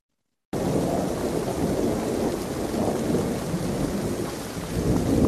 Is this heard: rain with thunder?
yes